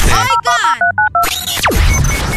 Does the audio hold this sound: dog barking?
no